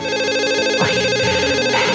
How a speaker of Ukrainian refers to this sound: Його мрії перервав несподіваний телефонний дзвінок.